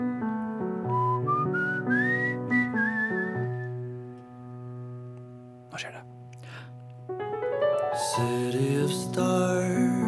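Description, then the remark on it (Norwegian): Someone whistles a short, sliding melody, the pitch gliding upward in phrases, with a steady low voiced hum running underneath and a brief pause midway. “Jeg liker å plystre.”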